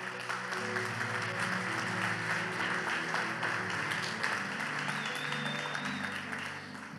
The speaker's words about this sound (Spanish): Damos un fuerte aplauso.